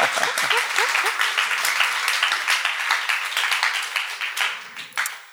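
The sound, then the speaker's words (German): A crowd applauds steadily, a dense patter of many hands clapping at once that holds for several seconds before thinning out, with a few brief voices cutting through at the start. “Ein Applaus.”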